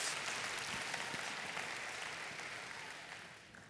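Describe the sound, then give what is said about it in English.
A crowd breaks into steady applause, giving God a hand clap of praise, dense overlapping hand claps forming a bright, hissy wash that holds strong and then gradually tapers off toward the end. “Come on, give God a hand clap of praise if you believe that He's worthy in the nations.”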